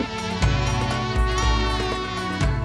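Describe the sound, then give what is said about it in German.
A fly buzzes continuously for a few seconds high overhead, a dense, droning whine that swells and dips slightly in pitch as it hovers, with no voices or other sounds. “Eine Fliege schwirrte hoch über ihren Köpfen.”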